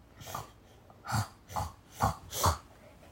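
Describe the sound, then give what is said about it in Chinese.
A person imitates a sniffling nose: five short, breathy sniffs, the first faint and the next four sharper, in a quick uneven rhythm with no talking. “他吸吸鼻子。”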